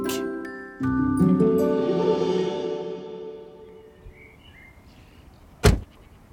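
A car door opens with a soft warning chime ringing inside the vehicle, followed by shuffling and then a single solid door slam, as people climb out of the car after a long drive from Geneva to Lucerne, at the grandparents' house.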